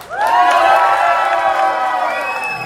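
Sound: audience applause and cheering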